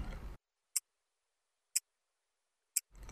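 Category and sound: household object, pocket watch ticking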